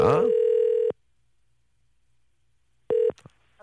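A steady telephone tone sounds for nearly a second, then silence, then a shorter tone followed by a few brief clicks as a call is placed to a listener on Park Myung-soo's show. No one speaks.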